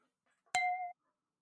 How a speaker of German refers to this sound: Ich finde, Fingernagel auf Weinglas klingt besser.